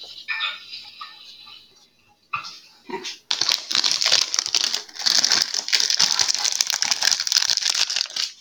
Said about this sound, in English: Oh, whoever hears this on Spotify, I'm sorry about the crinkling. I'm just trying to take the puff pastry out of the pocket. It's it's kind of a problem.